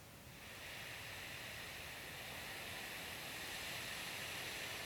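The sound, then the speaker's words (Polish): A steady, rushing wind, a fresh breeze of about 30 to 38 km per hour, hisses continuously at a moderate, even level, broad and airy with no gusting peaks or pauses, and no voices over it. “Świeży wietrzyk 30 do 38 km na”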